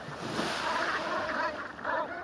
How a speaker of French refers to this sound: la fin du mois d'octobre, les bernaches cravants sont arrivés du grand nord sibérien pour passer l'hiver sur l'île. Ce qui les a attirés, ce sont les algues, les austères qui pullulent sur les grandes étendues de vases découvertes à marée basse.